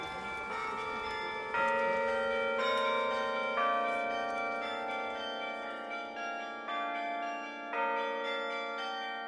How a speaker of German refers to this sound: Das zarte Spiel von dem Glockenspiel, das gehört zusammen. Als ganz Dirndl bin ich schon davor gestanden und habe das gehört, angeschaut. Als sie noch ein Dirndl war, gab es noch kein Glockenspiel oben in der Kirchturmspitze von Maria Hilf.